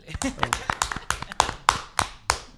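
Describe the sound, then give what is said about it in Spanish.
A brief round of applause for a man who made homemade pastelitos criollos desserts: a dozen or so sharp, crisp hand claps in a loose, uneven rhythm, fairly loud, with faint voices murmuring underneath. “Per, perdón, hermano, perdona, verdad, merece un aplauso.”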